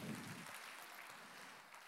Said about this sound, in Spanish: No es que no me gusta que aplauda, porque es para el Señor, pero apláudale más fuerte cuando oiga el testimonio completo